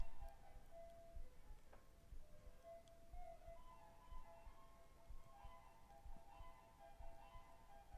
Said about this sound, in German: Das sind die kleinen gruseligen Mysteriositäten, die ich hier tatsächlich bei mir zu Hause habe. Das ist eine Eieruhr, die in der Küche auf der Fensterbank steht. Die zieht man unten einmal auf